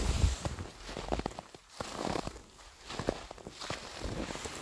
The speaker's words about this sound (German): aber ich stampfe durch dichten Schnee.